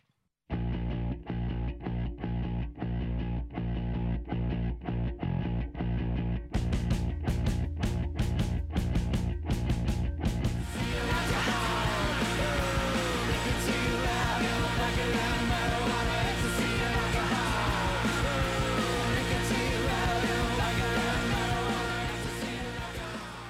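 A loud rock track with shouted vocals, opening on a tight, repetitive rhythmic riff before the full band crashes in around ten seconds and carries on dense and distorted to the end.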